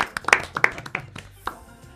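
A handful of sharp hand claps ring out at an uneven pace, like a small scattered round of applause, with faint voices murmuring underneath; palm clapping given on a programme in place of music.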